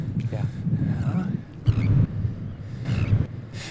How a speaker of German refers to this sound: Das sind unsere Seeschwalben. Das ist die Küstenseeschwalbe, die jetzt gerade hier ein bisschen hin und her mit seinem Partner vielleicht kommuniziert oder einfach nur mit den anderen